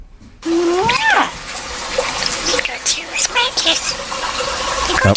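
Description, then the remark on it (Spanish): A starling mimics human speech in English, its speech-like phrases mixed with rising whistles, clicks and raspy chatter. The bird's voice runs continuously for several seconds, fairly loud. “Vamos a escuchar a un estornino hablando.”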